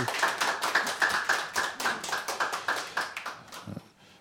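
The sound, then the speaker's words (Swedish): A small group claps for a few seconds after a poem reading, a quick, steady patter of hand claps that tapers off near the end without any talking, during a broadcast from Fountain House's premises at Götgatsbacken 38. “Får vi en liten applåd här?”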